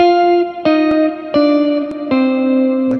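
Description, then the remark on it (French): An electric guitar with effects plays a slow descending arpeggio starting from E flat, the minor seventh of F, outlining an A flat major triad within F minor 7: each new note is plucked about every three-quarters of a second and rings into the next, stepping lower each time, with no voices. “Mais ce qui nous intéresse là, c'est qu'en fait, il descend en fait.”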